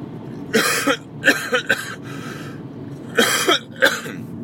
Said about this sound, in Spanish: Y como veis sigo teniendo tos, pero eh, va mejor, va mejor.